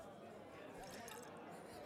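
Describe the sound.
Wine trickles softly into a glass in one brief, continuous pour, heard up close but quiet, with a faint murmur of voices in the background.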